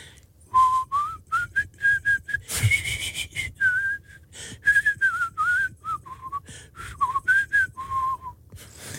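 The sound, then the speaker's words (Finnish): Someone whistles the theme tune of Jaakko Kolmonen's TV cooking show, a bouncy melody of short notes with one brief noisy clatter partway through and a low rumble underneath; no one speaks. “Se oli se tunnari sitä Jaakko Kolmosen keittiöohjelmasta. Vähän oli vihellys.”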